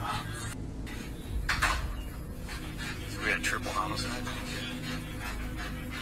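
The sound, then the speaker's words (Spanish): A tracking dog pants quickly and steadily during a house search, breathy rasps repeating over a low rumbling background, with a few faint clinks and rustles. “Mientras continúan investigando cada espacio de la casa, incluso con perros rastreadores”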